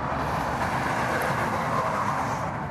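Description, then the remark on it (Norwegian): A freight train rumbles past on the Raumabanen railway, a steady, dense roar of wheels and rolling stock that holds constant without a break, with no voices present. “Det holder ikke bare med ett tog. Ett godstog.”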